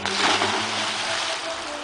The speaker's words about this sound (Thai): อริสนั้นได้ตกลงไปในทะเลน้ำตาของตัวเอง